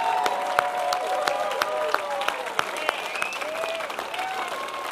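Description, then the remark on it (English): A church audience claps steadily for several seconds during a service, dense applause with a few sharper claps standing out and faint voices murmuring underneath. “Come on, put your hands together and just say it's cool.”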